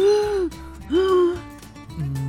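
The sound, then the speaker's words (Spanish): A person imitates a sick father choking on hot-water steam while bathing, with two strained, rising vocal gasps followed by a shorter choked breath, fairly loud, as if struggling to breathe. “Con el vapor del agua caliente, cuando se metía a bañar, se ahogaba mi papá. Yo escuchaba y él hacía...”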